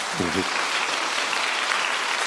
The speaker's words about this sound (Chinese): 感谢你们给我鼓掌